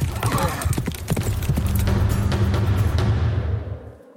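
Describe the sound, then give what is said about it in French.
Horse hooves clatter in a quick, irregular clip-clop, fairly loud, with a horse neighing over a low rumble before the sound fades out at the end. “Il fut par la suite tellement piétiné par les sabots des chevaux qu'il acheva sa vie peu après.”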